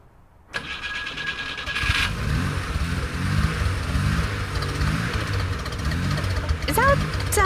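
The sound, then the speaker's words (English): An old car's engine cranks repeatedly in a labored, rhythmic churn, struggling for several seconds before catching, with a brief high chirp near the end. “It just has a hard turnover.”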